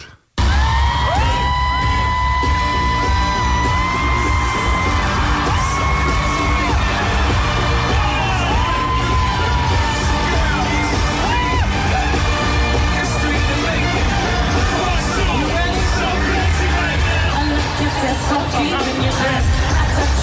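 A loud live stadium concert with a huge crowd cheering, yelling and whooping continuously, amplified vocals and music blending into a dense, echoing roar that stays intense for the whole stretch.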